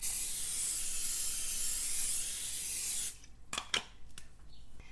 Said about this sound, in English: And now I'm taking a 9 by 13 glass Pyrex pan or a rectangular pan of your choice, and I'm just gonna spray it generously with some Pam to make sure nothing sticks.